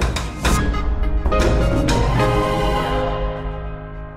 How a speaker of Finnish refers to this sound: Ja mä haluaisin kuulla sulta äänimiehenä, mitä sä oot mieltä Atlantaan, eli amerikkalaisen kaupungin tunnuksesta.